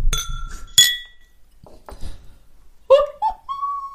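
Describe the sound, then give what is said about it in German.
Drinking glasses clink together in a toast early in the morning, a bright ringing chime followed by a second sharp clink, with brief murmured voices and a few soft sounds between them. “Darauf ein Stößchen hier. Oh. Prost, Prost.”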